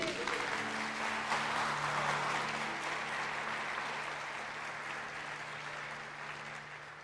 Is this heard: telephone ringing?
no